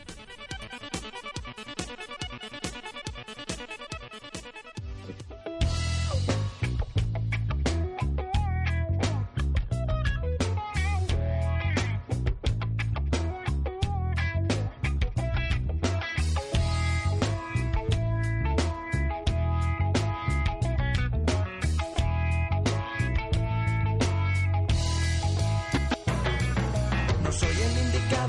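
A rock song plays, opening with a sparse, quieter intro for a few seconds before the full band crashes in loud with driving drums, heavy bass and guitars.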